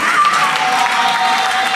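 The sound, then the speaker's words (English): An audience claps steadily, a dense wash of many hands sounding loud and continuous, with a faint tone running underneath and no break in the applause. “All those who are clapping, may heaven remember you.”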